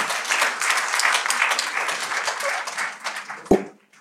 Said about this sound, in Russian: В этом месте аплодисменты должны были быть, я так думаю.